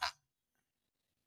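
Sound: dog making a noise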